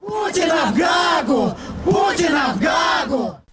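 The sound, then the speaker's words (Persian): Protesters in front of the Russian embassy in London chant the slogan "Putin is a murderer" in unison, two loud shouted phrases repeating in a steady rhythm, voices rising and falling together, continuous throughout. “معترضان در مقابل سفارت روسیه در لندن فریاد میزنند پوتین قاتل است شعار مشابهی که معترضان به مرگ آقای ناوالنی در برلین”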